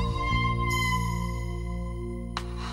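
A sustained synthetic tone with rich, steady harmonics, shimmering with a high bright layer and a brief swell near the end, evoking an artificial whale-like call with no voices present.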